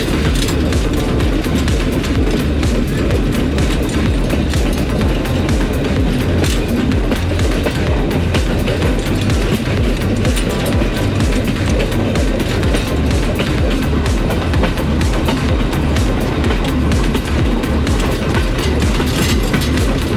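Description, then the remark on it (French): A train from Mantes arrives along the rails at station platforms, rumbling steadily the whole stretch, loud, with a continuous low roar and faint rhythmic clatter of wheels, no voices present. “la marquise des Grandes Lignes, l'arrivée d'un train de Mantes avait animé les quais”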